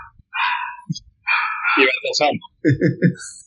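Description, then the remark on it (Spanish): A dog barks in a few loud, rough bursts during heavy thunder, ending with a quick run of three sharp barks in a row. “Alto perrito. No, está, está porque vinieron unos truenos zarpados.”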